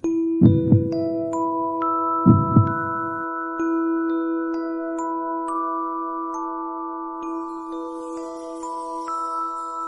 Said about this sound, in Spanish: Para mí lo es, uno de los sonidos más hermosos que se pueden escuchar jamás. Una melodía rítmica grave, profunda, que nos transmite el mensaje de que donde escuchemos estos latidos hay vida.